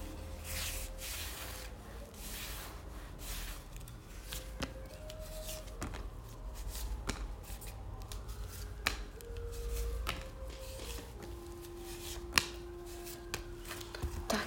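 Tarot cards being shuffled during a tarot reading for about fourteen seconds: a steady papery rustle broken by frequent crisp snaps and flicks, with soft sustained musical tones humming underneath and no talking.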